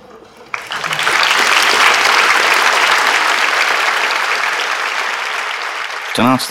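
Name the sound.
applause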